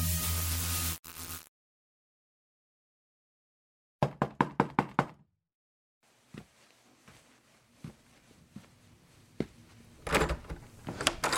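A quick series of six sharp knocks on a wooden door rings out clearly, followed by faint shuffling and a few scattered thumps and handling sounds.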